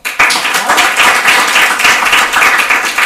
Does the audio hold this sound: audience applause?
yes